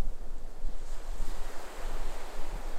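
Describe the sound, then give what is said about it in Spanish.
Pacific Ocean waves wash steadily against the shore in a continuous, fairly loud roar of surf, with a breezy rushing texture and no voices present. “Ahora eres parte de un océano primordial, donde el tiempo es líquido y las olas te llevan a explorar los recuerdos profundos del Pacífico.”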